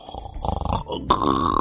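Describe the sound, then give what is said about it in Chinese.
A voice imitates an old man roommate's nightly snoring: a rattling, pulsing low snore on the inhale, a short pause, then a loud, breathy, slightly whistling exhale. “外加上说啊，这老头子天天晚上还打呼噜，就呼哈的啊，听那个动静，你都感觉他能给自己憋死”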